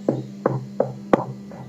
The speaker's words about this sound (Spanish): en ese preciso momento, cuando la abuela abría los ojos tanto como para mirarse en la nuca y la boca como si quisiera bostezar, alguien golpea la puerta.